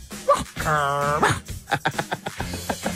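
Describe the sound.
A dog barks once, a drawn-out, whining bark, followed by people talking quickly.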